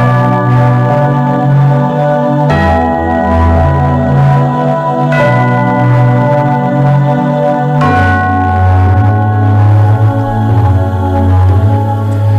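Church bells ring out loudly and steadily, with fresh strikes around every few seconds layering over long, shimmering metallic overtones that never fully fade. No voices are heard.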